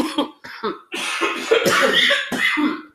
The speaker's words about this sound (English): I'm so sorry for the coughing.